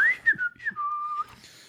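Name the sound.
person whistling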